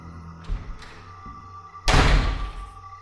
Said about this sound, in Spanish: Volvieron a abrir la puerta de un solo golpe. Esta vez fue aún más fuerte porque escuché cómo botaron el cerrojo y el trozo de madera que puse como tranca salió volando y hasta las bisagras se aflojaron del marco.